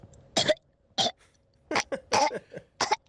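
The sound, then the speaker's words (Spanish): A voice imitating an orca call: about seven short, raspy, squealing bursts in an uneven rhythm, fairly loud, with no talking. “ese es el ese es el sonido de la orca.”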